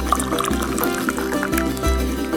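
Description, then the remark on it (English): Tea is poured steadily into a cup, a continuous trickle and splash whose pitch rises slightly as the cup fills, with no voices present. “So pour yourself a cup”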